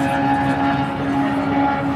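A motorcycle in the left lane of a highway in the Ruhr area, its engine a loud, steady droning hum with strong buzzing tones, holding even throughout over a constant rush of road noise, with no talking.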